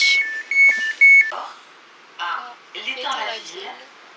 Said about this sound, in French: Ah, vous entendez, euh, notre train vient d'arriver. Donc là, on fait Bécon-la Défense.